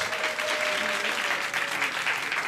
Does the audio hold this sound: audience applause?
yes